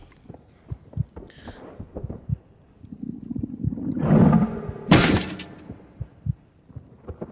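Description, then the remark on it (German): A steady, thumping video game heartbeat effect pulses at low volume in a regular double rhythm while the player has full energy, joined midway by a swelling rumble and a sharp burst of noise before the beating continues. “Wir haben wieder den Herzschlag, volle Energie.”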